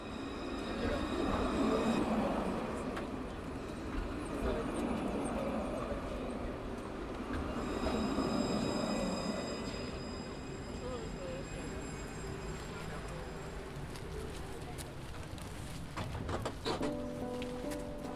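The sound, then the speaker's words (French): Steady rumble and rattle of a tram in Bordeaux in motion, heading toward the city centre, with a continuous rolling hum, faint metallic squeals and tones overhead, and a few clunks near the end. “Ici, dans le tram bordelais, on part en direction du centre-ville.”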